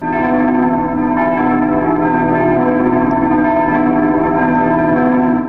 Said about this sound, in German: Die Kirchenglocken kehrten von der Beichte aus Rom zurück. Schön und rein erklang das erste Geläut der Glocken und war weithin zu hören. Jung und alt freute sich über den hellen Klang.